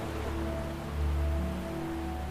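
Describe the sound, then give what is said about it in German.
A steady wash of ocean surf, with a deeper surge swelling and easing midway as waves break against rocks. Faint sustained tones hum underneath; no one speaks. “Und wir sehen die Wellen, wie sie auf die Steine und auf die Felsen treffen. Und das Meeresrauschen entspannt uns noch mehr.”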